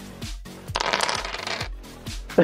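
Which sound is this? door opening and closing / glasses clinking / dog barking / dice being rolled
dice being rolled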